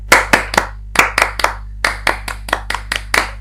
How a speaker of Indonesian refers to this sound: Oh, atau kita tepuk tangannya tepuk pramuka aja. Tepuk pramuka.